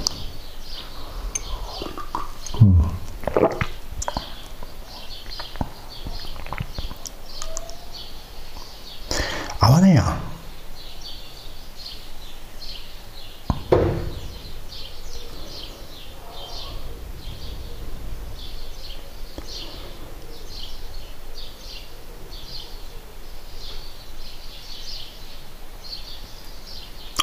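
Birds chirp and sing steadily outdoors at dawn, a dense chorus of small high calls, broken now and then by a few thumps and rustles.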